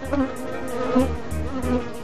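A Bombus affinis bumblebee buzzes steadily, its low droning hum holding throughout with a slightly wavering pitch and soft rhythmic pulses underneath.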